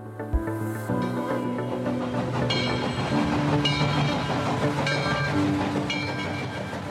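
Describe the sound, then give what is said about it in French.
A train rolls steadily along the rails, with a continuous rumble, rhythmic clacking and metallic squeals, fairly loud for the whole stretch, no voices. “On a pris le train, on s'en allait à Halifax”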